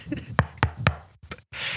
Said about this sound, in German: ich klopfe mal eben an der großen Holztür des RTL-Gebäudes an